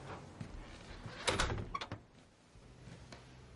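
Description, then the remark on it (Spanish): A woman opens a door on Christmas Eve and leaves it open, a short scraping, rattling burst that peaks mid-clip and fades out, followed by a low, quiet hum. No one speaks. “Ella deja la puerta abierta y da varios pasos hacia atrás.”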